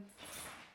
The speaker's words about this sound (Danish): det er lige hunden, I kan høre i baggrunden